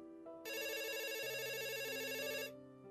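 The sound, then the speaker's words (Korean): A telephone rings in one sustained burst of electronic trilling, bright and buzzy with a rapid warble, lasting about two seconds before cutting off, with a low hum underneath and no voices. “하지만 장 씨는 첫째 아들과 둘째 아들의 갑작스런 전화를 받게 되었다.”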